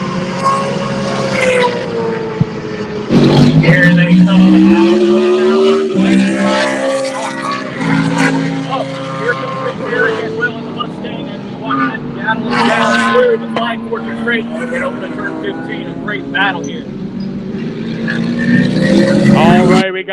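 The race cars of Bump and Pantera roar loudly and continuously through turn number 15, their pitch rising and falling as they brake, downshift and accelerate, with several overlapping engine whines.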